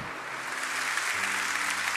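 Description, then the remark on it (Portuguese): A church audience applauds the Lord in a dense, steady wash of clapping that fills the whole two seconds, with sustained low keyboard notes humming underneath and shifting partway through. “Quem pode aplaudir o Senhor?”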